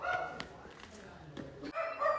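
dogs barking

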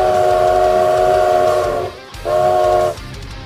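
train whistle

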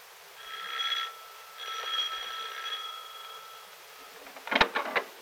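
doorbell ringing

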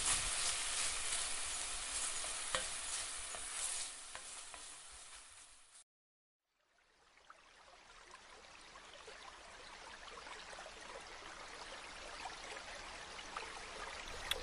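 bacon sizzling

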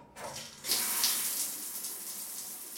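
shower water running

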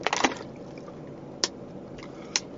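person drinking water

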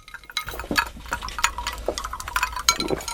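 glasses clinking

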